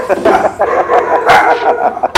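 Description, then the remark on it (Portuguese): Dogs bark in quick, overlapping bursts, loud and steady across the whole stretch, with a few higher yelping notes mixed in and voices talking underneath. “Cachorro! Cachorro! Cachorro!”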